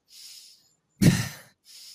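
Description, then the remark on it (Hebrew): A person demonstrates quick, shallow chest breathing that does not go down to the belly: a short airy inhale, then a sharper, louder breath out, followed by another brief inhale, with no talking. “יצא לי בדיוק לעבוד השבוע עם מישהו, ואחד הדברים שראינו עליו, שביקשתי ממנו קצת לקחת כמה נשימות עמוקות, זה שהוא נושם נורא לחזה. נשימות כאלה.”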